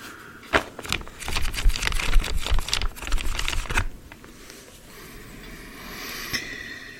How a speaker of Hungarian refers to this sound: Várjál, belepörgetem a lapokat a mikrofonba, és akkor annak olyan, akkor érezni fogod.